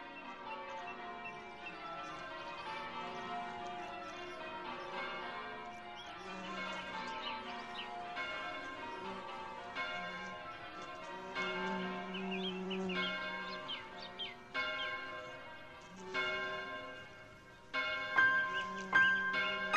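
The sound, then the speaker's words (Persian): Church bells ring in a song's intro, in a steady series of struck, ringing tones, each with rich overtones that hang and overlap as the next strike sounds, growing somewhat louder toward the end. “و بعد صدای ناقوس کلیسا رو میشنویم”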